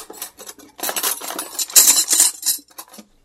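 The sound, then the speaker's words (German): Dishes and cutlery clatter as someone washes up by hand in a small office tea kitchen, a busy run of bright metallic clinks and knocks, with brief pauses between bursts and no one talking. “hörte sie Klappern in der kleinen Teeküche.”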